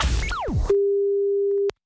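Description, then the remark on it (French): A noisy burst with falling electronic sweeps gives way to a steady, single-pitched telephone ringing tone as a call is placed to someone, holding for about a second before a click cuts it off. “Quand il appelle euh, des gens au téléphone, il pose des questions très très très très rapides, il faut répondre.”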